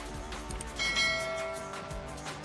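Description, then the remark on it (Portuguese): A bright notification bell chimes once, ringing out clearly and fading over about a second against a faint background, with no one speaking. “Deixa o like, se inscreva. sobre o sininho, clique em todas as notificações.”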